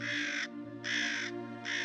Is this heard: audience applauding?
no